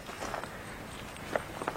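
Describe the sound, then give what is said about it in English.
Footsteps drag and scrape across rough ground in a steady walking rhythm as walkers scrape their feet to leave a trail to return by, heading east, soft gritty shuffles with a couple of sharper scuffs near the end, no voices. “As we walk, we scrape the ground with our feet, leaving a trail to return by.”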